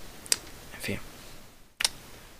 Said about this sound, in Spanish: Perdón, que estaba cogiendo el boli.